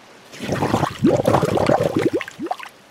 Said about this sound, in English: But the answer is Tembo, you're swimming in the river. Yep, elephants are great swimmers. We can swim and float in water for hours, and we use our trunks as a snorkel.